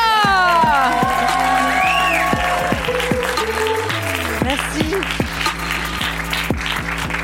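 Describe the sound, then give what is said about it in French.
A large crowd applauds loudly and steadily for a singer, with cheers, whoops and whistles rising above the dense clapping throughout. “Mesdames et messieurs, un maximum de bruit pour la … française, ….”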